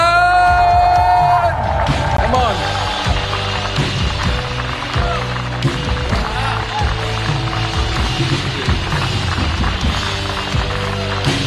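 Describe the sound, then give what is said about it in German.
Loud, sustained applause and cheering from a large church audience in Mainz on a Sunday, welcoming a guest pastor, fill the whole stretch, a dense wall of clapping with whoops, and a voice briefly shouts over it near the start. “Und ich hoffe, wir haben einen dicken, fetten Applaus”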